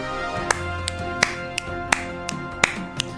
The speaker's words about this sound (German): Und immer schön auf die 2 und 4 klatschen